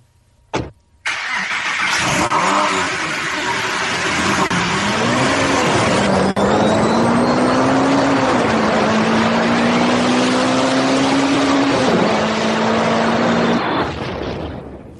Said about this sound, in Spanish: Arranca, el coche que no, que no da esto, ¿eh?